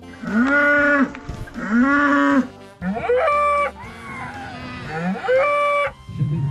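Several long, loud cow moos follow one another closely, each a drawn-out bellow with a rising and falling pitch, heard up close with no talking.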